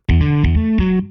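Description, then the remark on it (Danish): A short sound-logo melody played on electric bass: about five plucked notes in quick succession, loud with a slightly distorted, effected tone, ringing out alone before fading. “Faktisk prøvede vi også med en elbas.”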